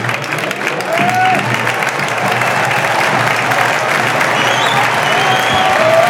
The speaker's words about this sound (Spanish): Bueno, y ovación por todo lo alto para los dos, ¿eh? Y además esto necesita el, necesita el equipo, ¿eh? que la afición esté volcada, volcada con, el, equipo en, estos últimos minutos.